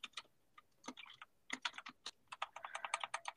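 Rapid clicking of keys on a computer keyboard, with a burst of taps, a brief pause, then a steady quick run of keystrokes; no voices.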